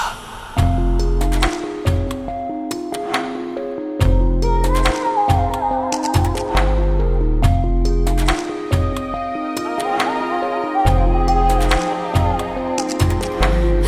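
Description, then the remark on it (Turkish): A newly released single starts up on Pusula radio, loud and instrumental, with a deep bass line moving in steady steps, sharp drum hits punctuating the beat, and a bright melodic line weaving above; no voices. “Her seferkinden farklı başladı şarkın”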